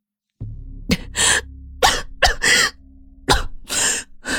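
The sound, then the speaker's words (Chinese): A woman clutching her chest coughs heavily, harsh coughing in five or six uneven bursts, some coming in quick doubled pairs, over a low steady hum with no talking. “柳岩捂着胸口，重重的咳嗽几声。”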